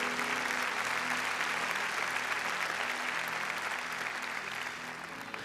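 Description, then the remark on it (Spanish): An audience applauds the Lord, a dense, continuous wash of clapping that holds at an even, fairly loud level for several seconds before easing off slightly at the end. “Dele un fuerte aplauso a nuestro Señor.”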